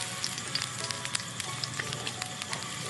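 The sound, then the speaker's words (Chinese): Steak sizzling in a pan while camping: a steady, hissy crackle with frequent sharp pops and spits scattered throughout, fairly quiet and continuous with no voices. “哇，好久没有吃牛排了呢。”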